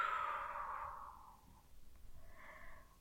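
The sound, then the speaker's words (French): A single long breath pushed out through the mouth after holding it, during a guided breathing exercise, a soft airy whoosh that fades over about a second and a half, followed by quiet with a faint breathy murmur near the end. “Retenez votre respiration et effectuez votre geste de confiance pour lui donner encore plus de puissance, plus de poids. Ressentez toutes ces sensations dans le corps, puis soufflez par la bouche.”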